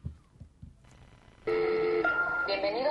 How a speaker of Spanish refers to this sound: Ahora vamos a escuchar eh, la línea telefónica con la que se comunicaban